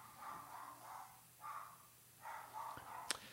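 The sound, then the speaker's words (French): A dog barks repeatedly in the background, a string of muffled yelps in irregular bursts, fairly faint over a low hum, ending with a brief sharp click. “tu, euh, la parole à ton chien?”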